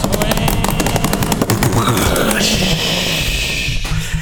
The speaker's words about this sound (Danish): Ja, så skal vi jo en trickety, ja. trickety drumroll.